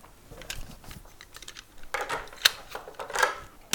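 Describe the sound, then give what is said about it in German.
Keys found in a box of odds and ends being handled and tried in a lock: a series of small metallic clicks and rattles, irregular and light, with a few louder clinks toward the end and no talking. “Ich habe Schlüssel gefunden. Interessant. Wo passt der wohl?”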